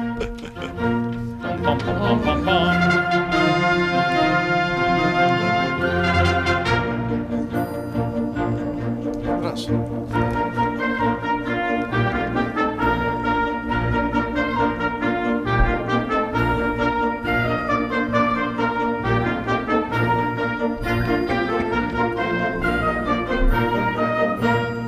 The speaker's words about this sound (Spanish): han arreglado este divertido popurrí o medley navideño con Mozart y su famosa sinfonía